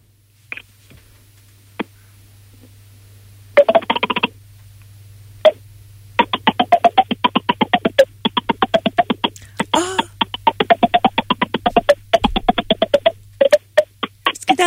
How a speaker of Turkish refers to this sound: yanaklarımdan her tonu, her türlü notayı çıkartabiliyorum